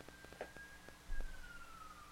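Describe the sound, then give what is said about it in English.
A faint siren holds a thin steady wail that slowly drifts lower in pitch, with a few soft knocks and a low rumble underneath. “I'm wondering if they're actually hearing the sirens.”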